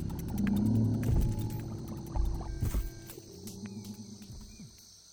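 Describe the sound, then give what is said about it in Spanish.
A toad sitting on an old branch calls at night with low, throaty, resonant croaks that rise and fall over several seconds, while a steady high chorus of night insects hums in the background. “Sentado en una rama vieja, canta el sapo cuartam.”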